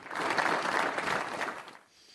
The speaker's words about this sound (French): À l'issue des prises de parole du proviseur et d'une professeure, une minute de silence a été observée, suivie d'une minute d'applaudissements.